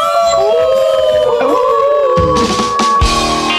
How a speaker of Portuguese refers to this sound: E vamos fazer barulho. Vamos uivar, né, gente?